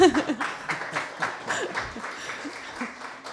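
A short burst of applause: a few people clapping steadily and briskly for several seconds, the claps fairly loud and even, with a hint of laughter mixed in.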